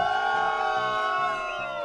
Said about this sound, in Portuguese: Então você vai levar uma vaia só por jogar isso na minha cara.